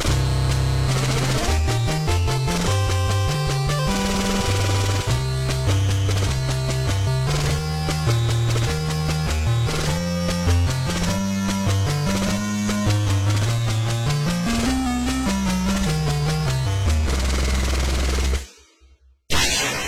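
Upbeat 8-bit NES background music from Konami's classic game Salamander: a bouncy bass line under buzzy square-wave melodies and rapid noise-channel drum hits, loud and steady throughout before cutting off abruptly near the end.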